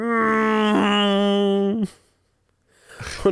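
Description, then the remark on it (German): Someone imitates with their voice the engine noise of badly animated attacking birds diving headfirst toward the ground: a loud, steady droning hum held at one low pitch for nearly two seconds, then abruptly cut off, followed by a short breathy rustle. “Dabei gab es Motorengeräusche, so.”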